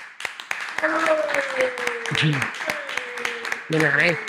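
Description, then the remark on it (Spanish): Applause from a small group at the end of an interview, with scattered sharp claps running the whole time under voices and a sustained tonal cheer or whoop, steady in loudness. “Aplauso.”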